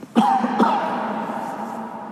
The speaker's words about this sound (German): hustet. Gleich geht's weiter.